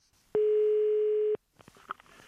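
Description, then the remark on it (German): A single telephone ringing tone on an outgoing call to a radio audience researcher: one loud, steady, slightly buzzy beep lasting about a second, followed by quiet line clicks and rustle, with no talking. “Ich habe ihn mal angerufen, um ihn zu fragen, wie er eigentlich ermittelt, wer uns hört.”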